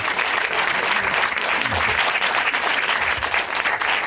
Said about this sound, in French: Je pense qu'on peut encore applaudir. Euh, merci, merci.